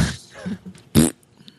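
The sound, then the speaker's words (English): A mouth-made fart noise, loud: a low sputtering rumble followed by a short, sharp buzzy blast, then quiet. “yeah, no, just, I thought I was like the fucking, fart machine there for a second.”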